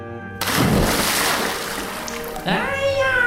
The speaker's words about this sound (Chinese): 心急的大野狼往下一跳，只听见扑通一声，哇！它掉进了水井里面。